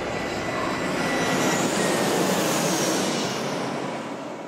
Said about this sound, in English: I didn't know you had a private jet.